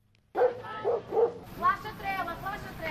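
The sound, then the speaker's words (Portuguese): A dog gives three quick barks in a row at a dog training school in Tires, Cascais, Portugal, followed by a stretch of voices talking over light background noise. “Na escola Cães na Linha, donos e cães são os heróis.”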